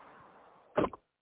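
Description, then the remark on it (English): A steady electric whir, like a car's power window moving, runs for most of a second, then ends in a sharp thump and a smaller knock as a car door shuts while someone gets into their vehicle. No one speaks. “Sorry about the noise. Yeah. Getting, getting in my vehicle.”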